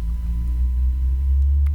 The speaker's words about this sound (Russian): Ого, какая большая машина проехала.